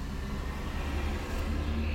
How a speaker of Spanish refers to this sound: eh, a lo mejor un poco con ideas salteadas, este, es un poquito el, tema de, estar grabando en en el auto,